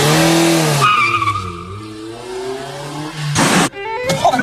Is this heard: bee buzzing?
no